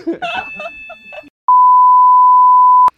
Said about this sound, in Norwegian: Ja, det var voldsomt. Ja, det var eh, plutselig brannalarmen.